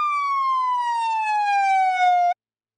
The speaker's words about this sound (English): Terry is momentarily distracted by the police sirens that are in the distance and are getting nearer.